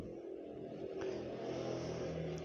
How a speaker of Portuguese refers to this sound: Como sempre, a moto passando no fundo para atrapalhar.